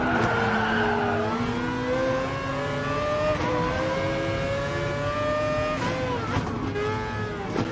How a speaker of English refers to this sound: What kind of fucking Mazda are they driving? Is it a? Uh, well, it could be an. Uh, new version of like an RX-7 or an RX-8 or some shit.